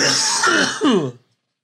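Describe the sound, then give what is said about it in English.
A single loud bout of throat clearing and coughing, a rough, gravelly rasp lasting about a second before it cuts off into silence. “Cough to get off, guys.”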